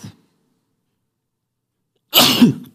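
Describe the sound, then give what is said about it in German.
A single loud sneeze bursts out after a long silence, sharp and forceful, trailing off quickly. A brief faint sound is heard at the very start. “Entschuldigung. Ähm, Gesundheit.”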